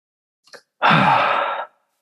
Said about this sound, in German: atmet kurz in sein Mikro.